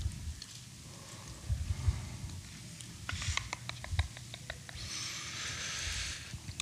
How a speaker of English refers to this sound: Love hearing the pages turn. It's good stuff.